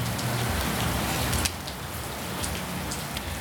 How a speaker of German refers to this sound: Aber jetzt sitzen wir jetzt hier erstmal im Regen fest.